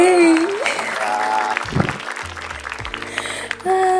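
A burst of steady applause lasting about four seconds, with bright whooping and whistle-like tones riding over the clapping, fairly loud throughout.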